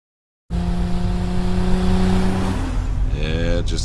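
After a brief silence, a loud car engine in a Super Bowl TV commercial hums at a steady pitch, then revs sharply upward in a quick rising whine near the end.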